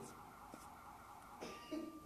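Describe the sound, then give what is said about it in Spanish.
A car alarm wails outside, a faint, steady electronic tone with shifting pitches toward the end. “está sonando una alarma. Seguro se están robando un carro.”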